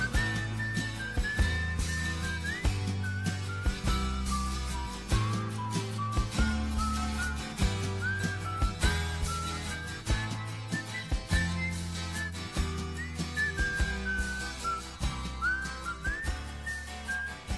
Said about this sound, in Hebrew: שרוק משהו.